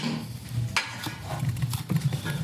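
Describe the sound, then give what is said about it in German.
A utensil stirs tomatoes just added to a frying pan, with a few sharp scrapes and clacks against the pan over a low, steady sizzle and rumble. No talking. “Und wir haben jetzt die Tomaten dazu getan. Also es kommt jetzt alles so Stück für Stück hintereinander in die Pfanne.”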